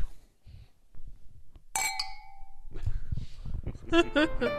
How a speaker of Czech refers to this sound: Mějte se krásně a můžeme si na závěr připít na další rok. Minutku. a omlouváme se vinařům s Burčákem se neťuká, ale pro ten efekt.